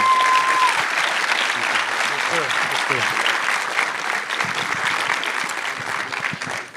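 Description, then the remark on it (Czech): An audience at a seminar applauds steadily for several seconds to welcome the speaker, a dense, even patter of clapping that stays loud throughout and tapers only slightly toward the end. “Přivítejme ho potleskem a předám mikrofon.”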